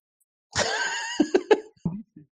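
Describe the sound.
A sudden, loud sneeze with a drawn-out voiced tail, followed by a few short sharp bursts like sniffs or stifled laughs.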